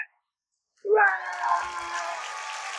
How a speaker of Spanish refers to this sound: Ahora sí, ahí, ahí sí salen aplausos. Ahorita sí vamos a poner aplausos. Ahorita sí.